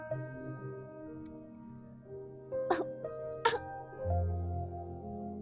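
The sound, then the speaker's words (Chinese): Two short, sharp coughs from the flower in a story, not caused by a cold, sounding like a voice imitating a cough, over a steady, sustained tonal background. “花儿咳嗽了一阵，但并不是由于感冒。”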